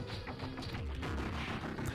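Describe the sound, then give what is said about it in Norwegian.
Rapid bursts of gunfire crackle over dense, loud game music, the shots coming thick and fast in an unbroken barrage with no speech. “Skikkelig sånn mye skudd.”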